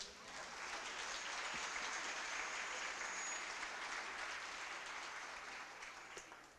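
A church audience breaks into sustained applause for the Lord during a sermon, a dense, even wash of many hands clapping that holds steady for several seconds before slowly tapering off.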